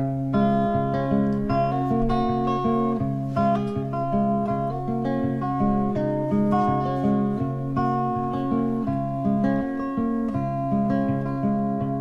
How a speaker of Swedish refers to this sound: eller framförallt en låt från den skivan som är eh, känd. Så jag ska väl lite pliktskyldigt spela den.